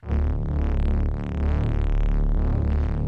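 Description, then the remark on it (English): A low-playing synth, heavily saturated through a hard-curve saturator and an overdrive at full drive and full dry/wet, drones loud for about three seconds, its thick bass growl topped with dense, gritty buzzing harmonics. No voices are heard. “It's actually pretty nice as is, but you know, I wanted to obviously come and fill out a little bit more, so add a saturator with a hard curve here and then a bit of an overdrive here just to fill out the high end”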